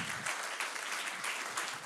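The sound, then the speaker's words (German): Audience applause welcoming the preacher onto the stage, a steady wash of many hands clapping at once with a dense, crackling texture and no voices on top. “Lasst ihn mal mit einem Applaus hier auf der Bühne willkommen heißen.”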